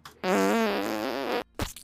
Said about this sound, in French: La première catégorie, merci beaucoup pour le, pet bébé, toujours apprécié.